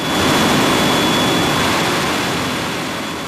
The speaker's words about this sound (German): Ein Beispiel ist diese große Maschine hier. Das ist eine Maschine, mit der man Papier trocknet, zum Beispiel für Papierhandtücher, für Küchenpapier oder Taschentücher. Sie steht im Werk der Firma Essity in Wiesbaden.